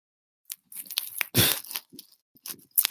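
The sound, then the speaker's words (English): Crisp crunching as someone chews an Almond Joy almond candy bar, a quick irregular series of bites and chews with one louder crunch in the middle, no talking. “Are you eating nuts?”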